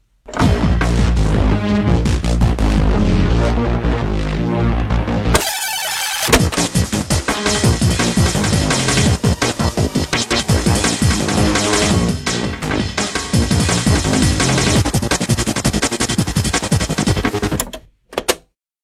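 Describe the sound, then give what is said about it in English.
Dense, loud self-made music, recorded with a tape machine, plays back from cassette tape with a full, slightly compressed tape-like sound, briefly dropping out around five seconds before resuming with busy, rhythmic textures until it cuts off abruptly. “Actually, it was the time of CD players, but I preferred tape because I could use one tape lots of times. It sounded like this.”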